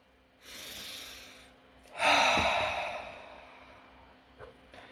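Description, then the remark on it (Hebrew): A slow, deep breath taken in, a softer airy inhale followed by a fuller, louder rush of air that gradually fades out. “נשימה.”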